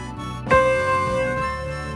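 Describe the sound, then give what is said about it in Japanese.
A single piano note, C (do), struck once with a sharp attack, its bright harmonics ringing out and slowly decaying over a faint background, with no voices; played as the reference note for a pitch-guessing ear-training quiz. “えー、音当てクイズをしよう音当てクイズそう、うん、音感トレーニングだね音感そう音感ですよ、うん、今ピアノを持っていますはい”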